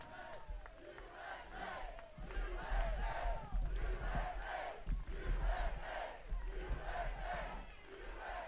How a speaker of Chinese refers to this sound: 人们在大喊 “USA USA”，美国美国。再干四年，再干四年。